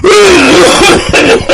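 A voice imitates a little girl's strained coughing fit as phlegm rises in her throat and she cannot catch her breath: a drawn-out, groaning throat sound followed by three or four harsh, raspy cough bursts, loud and uneven, with no other talk.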